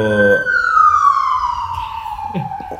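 A loud ambulance siren wails, its pitch sliding steadily downward as it passes and moves away, with faint traffic rumble underneath.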